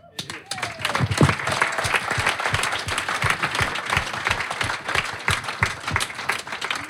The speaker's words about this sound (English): So I'm going to take that as a applause and thank you.